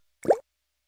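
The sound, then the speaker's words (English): A single short plop of a regular water droplet with a quick upward bloop in pitch, fairly clear, followed by silence. “This is the sound of regular water droplets.”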